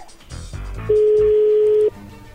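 A telephone tone as a number is dialed: one loud, steady, mid-pitched beep lasting about a second, rising out of a muffled jumble of background sound that continues softly afterward.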